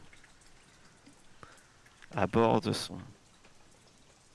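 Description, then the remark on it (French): Steady, soft rain hisses throughout on the road outside the Relais des Trois Routes, with faint scattered drops. A man's voice briefly speaks over it near the middle. “Comment on le voit sous cette pluie avançant avec son, son attelage et son attelage, évidemment, décris-nous son attelage lui-même.”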